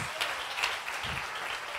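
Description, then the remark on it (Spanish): A crowd applauds for the Lord, steadily, a dense wash of many hands clapping at a constant level, with a few sharper individual claps standing out and faint voices mixed in. “Si ese aplauso es para el Señor, dese lo mejor.”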